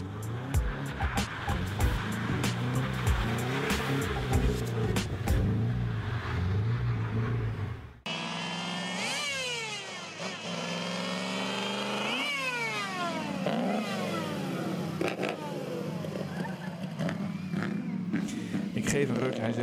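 A big eight-cylinder (V8) car engine is started and rumbles low and steady, then the sound abruptly shifts to a louder, brighter run with rising and falling revs, continuing strong to the end.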